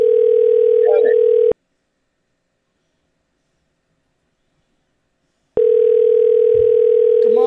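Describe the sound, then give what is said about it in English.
An outgoing phone call's ringback tone: a steady electronic buzz sounds for a moment, goes silent for several seconds, then starts again, clear over faint line noise. “Mike. Answer the phone.”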